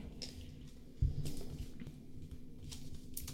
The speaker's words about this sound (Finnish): Ja aika alkaa nyt. Täällä käy kynät kovin kovaa